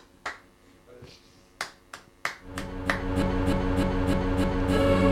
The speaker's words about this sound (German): Mach doch mal das Klatschen, bitte.